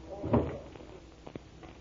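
A door swings shut with a single solid thud, followed a moment later by a couple of faint clicks or knocks.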